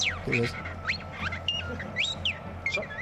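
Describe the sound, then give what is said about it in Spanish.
A parrot imitates robot-like beeps and whistles: a rapid string of warbling, sliding electronic chirps and rising and falling tones over a low steady hum. “Esto es un loro, ¿eh? Esto no es R2.”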